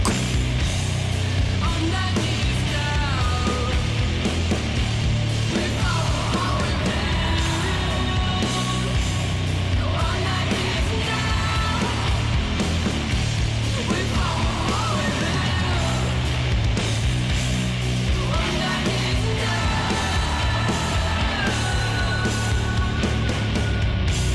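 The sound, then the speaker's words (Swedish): A dense, loud metal track with heavy distorted guitars and pounding drums, a harsh screamed vocal riding over the wall of sound throughout. “Den här skriksången i bakgrunden ökar inte dramatiken för mig alls.”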